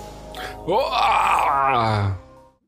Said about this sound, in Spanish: No tengo saludo esta semana, solo un grito.